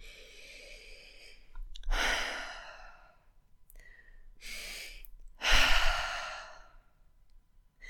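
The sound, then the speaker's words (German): Slow, deep breaths drawn in and let out, a couple of long airy inhales and exhales with a heavy sigh-like release and no talking. “Und wenn du so einen tiefen Atemzug nimmst, dann zieht dich das aus deinem Drama und Stresskreisel, in dem du gerade bist, heraus.”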